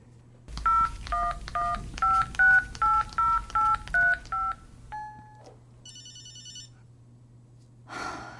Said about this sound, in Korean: 그리고 술김에 철룡에게 전화를 거는데